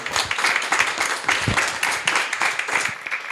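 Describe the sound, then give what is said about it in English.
An audience applauds steadily, a dense, crackling wash of many hands clapping at once, sustained at an even loudness throughout without any voices breaking through. “Big round of applause.”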